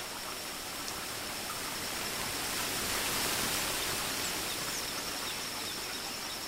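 A waterfall roars with a dense, steady rush of water that fills the whole soundscape, constant, with a thin high tone faintly running through it.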